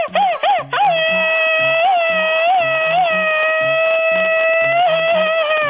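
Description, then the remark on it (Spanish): A loud, high machine-gun style Mexican grito shout: a quick burst of stuttering yelps, then one long, sustained wail held for several seconds over a steady, thumping low musical beat. “Y échate el grito ametralladora, chamaco.”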